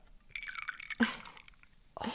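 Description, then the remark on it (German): A fizzy Spezi soft drink being poured from a can, with a bubbly hiss and two sharper splashy bursts, no talking. “Darauf trinke ich nochmal ein Spezele. Darauf erstmal, wir stoßen an”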